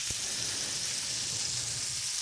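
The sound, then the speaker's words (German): Steady sizzling of food frying in a pan, a continuous crackling hiss with faint low bubbling underneath and a brief soft knock near the start. No one speaks. “So, die Pfanne mit, mit Enden brutschelt jetzt hier.”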